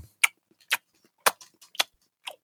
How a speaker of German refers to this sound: Wisst ihr, wie, wisst ihr, wie gut gutes Schmatzen klingt? Wie als würde man durch feuchten Schnee gehen. Mhm. Und ich kann euch sagen, das ist ein guter, ein guter Whisky, der Praline doch.